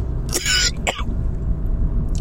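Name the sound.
coughing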